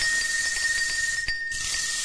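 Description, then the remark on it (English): A rain stick pours out a steady, bright hiss of tiny pattering grains for about two seconds, with a brief dip partway through before the rushing sound resumes. No one speaks. “Uh, we're gonna give you some karma and some rain stick.”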